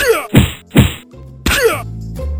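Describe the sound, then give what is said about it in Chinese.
Three heavy thumping blows land in quick succession as two grooms seize a man and punch and kick him, each a loud, dull impact with a trailing grunt-like tone, followed by a low lingering rumble. “两个马夫揪住三柱，二话不说，立刻对他拳脚相向。”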